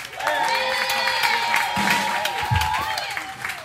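A crowd yells and cheers loudly, with one high sustained whoop riding above scattered clapping and shouts, filling the whole stretch without letup.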